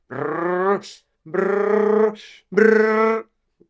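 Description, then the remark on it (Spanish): A voice imitates a child making the sound of a car on the road, a revving engine in three sustained, buzzing bursts, each rising slightly, separated by quick breaths where a gear change is simulated, with no words spoken. “los dos niños hacían el sonido de un coche en la carretera, ¿no?”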